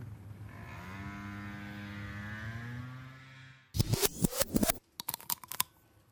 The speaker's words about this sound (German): Mmh. So klingt das, wenn man in ein dickes Magnum-Eis reinbeißt. Mmh. Das haben wir uns jetzt nämlich gegönnt, nachdem wir den ganzen Nachmittag unterwegs waren.